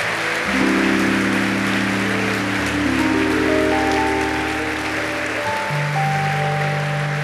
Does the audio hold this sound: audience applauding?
yes